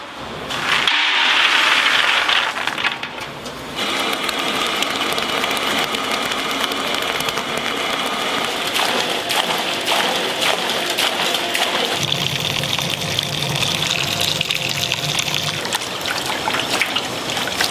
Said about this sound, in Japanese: 今朝は豆腐作りのいい音それではお聴きください